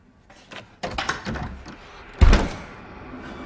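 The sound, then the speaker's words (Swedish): A mother's heavy fists thump at night against the door of her son's room, where he has shut himself in, in an uneven burst, a few dull knocks followed by one loud, booming blow, then a fading rumble. No voices. “Det är inte kul där på natten att ha en mamma som dunkar på det sättet.”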